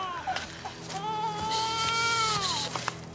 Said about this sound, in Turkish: Kızım. …. Ağlama ne olur kızım. Acıktın değil mi?